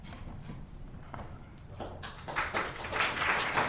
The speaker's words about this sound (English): All right, clapping already.